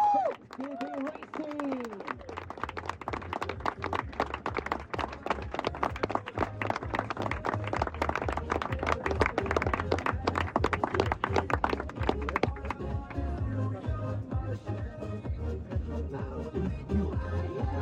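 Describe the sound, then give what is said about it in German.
A crowd claps steadily for several seconds in applause for the citizens, dense rapid handclaps over a low rumble, with a brief voice at the start before the applause settles and thins toward the end. “So, jetzt Applaus für die Bürger.”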